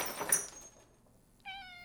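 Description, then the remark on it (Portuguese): A cat knocks a glass of water over onto the floor with a quick clatter, a brief pause, then a single clear cat meow that holds steady to the end. “o gato havia derrubado seu copo de água no chão, o acordando de seu sonho.”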